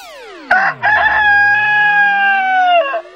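A single loud rooster crow: a couple of choppy opening syllables, then one long, strained note held for about two seconds, dipping slightly in pitch before it cuts off. No talking.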